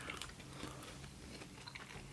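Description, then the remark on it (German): Quiet chewing and biting on crunchy veggie snacks eaten with ketchup, with small crackling crunches and clicks repeating steadily throughout, and no voices. “müssen die Essgeräusche bitte entschuldigen.”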